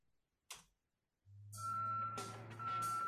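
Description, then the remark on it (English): A sharp click, then a heavy truck engine rumbles up and a loud, high reversing beeper sounds over clattering mechanical noise, cutting out briefly before resuming, in the entrance theme of Duke "the Dumpster" Droese. No talking. “Yeah, I forgot about the fucking beeping in that.”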